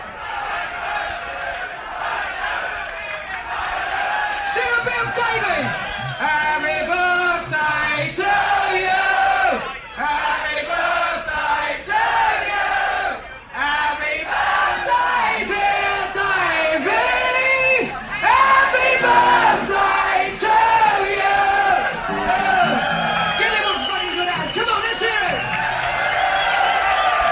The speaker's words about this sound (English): … fact of the week is that this happened and here's some footage from it where the band and audience sing happy birthday to ….